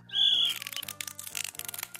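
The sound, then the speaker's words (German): A small dog whistle blown hard gives one loud, shrill, steady blast lasting about a third of a second, then breaks into a string of sputtering, breathy, rattling puffs with no talking; the whistle has broken off and does not work. “In die Pfeifen, kräftig Neipfeifen, das ist doch alles.”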